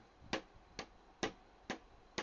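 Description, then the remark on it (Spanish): Hands tap on a table five times in a steady, even rhythm, showing a way of applauding with the table, each tap crisp and sharp with a quick decay, and no voices in between. “Y bueno, y la cuestión de que aplaudían así como con la mesa, no sé si escuchan.”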